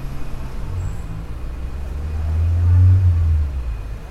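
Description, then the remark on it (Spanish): A car's steady low engine rumble and road roar, swelling louder for a moment as if passing or accelerating, then settling back to a constant drone, as the car drives at night in traffic on a highway out of the city. “Una noche metieron nuestra vida en el maletero del auto y siguiendo las hileras del tráfico, salimos a la autopista y nos vimos libres de la ciudad.”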